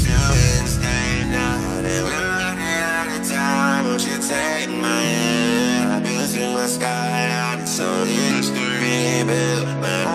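A polished pop song plays at steady volume, with a smooth male vocal riding over warm synths, a sustained bass line and a regular beat throughout.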